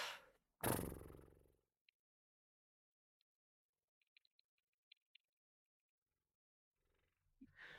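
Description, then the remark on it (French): A voice blows one loud, buzzing lip trill lasting about a second, mimicking a snorting horse, followed by quiet silence with a few faint clicks and a soft rustle near the end. “Euh, vous faites comme euh, un cheval qui soufflerait, vous lâchez vos, laissez vos lèvres fredonner entre elles.”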